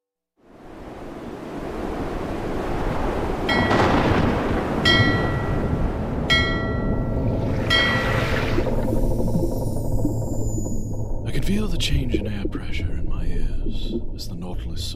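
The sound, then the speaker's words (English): A loud, continuous roar of a raging typhoon, with heavy waves crashing and wind howling throughout, punctuated by a few brief metallic tonal bursts. “Just meters below the surface, the mad roar of the typhoon fades into tranquility.”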